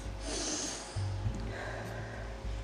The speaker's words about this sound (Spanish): Cierra los ojos y haz varias respiraciones profundas.